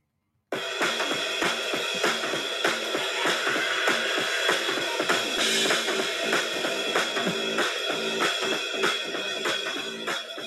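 A loud, dense rock song starts abruptly and plays at full energy, with distorted guitars and a driving, steady beat that stays consistently strong throughout.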